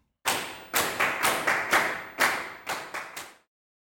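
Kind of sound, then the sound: crowd, loud hand clapping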